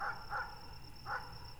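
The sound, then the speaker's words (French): A dog howls at night in three brief, yelping bursts, two close together and one after a short pause, fairly faint over a steady high-pitched whine and low background noise. “Le chien hurle des nuits entières de hurlements.”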